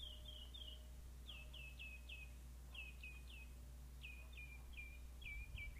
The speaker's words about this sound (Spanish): Y mira, los ruiseñores aquí te cantan.